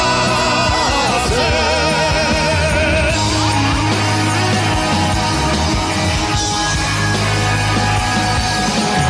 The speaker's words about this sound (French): Vous avez pu entendre le public siffler